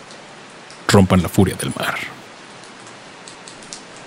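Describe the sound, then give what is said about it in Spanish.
Steady rain hisses evenly throughout, with a few faint drops ticking near the end. A man speaks briefly over it in the first half, then the rain continues alone. “Y las gotas de lluvia rompan la furia del mar.”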